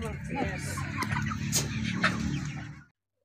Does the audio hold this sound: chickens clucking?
yes